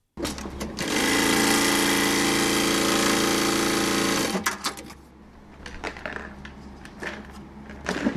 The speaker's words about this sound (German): Ihre Schwester Petra sitzt in der Zeit an der Nähmaschine und kümmert sich um die gerade angekommenen Doktorhüte.